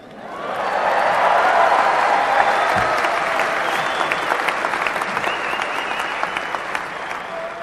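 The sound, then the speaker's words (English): A crowd breaks into sustained, loud applause after a mention of the Big Ten champion Ohio State Buckeyes, a dense wash of clapping that swells quickly and holds steady for several seconds, with a few sharper individual claps standing out near the end. “I knew that would be an applause line.”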